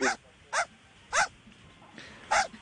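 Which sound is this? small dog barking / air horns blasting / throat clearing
small dog barking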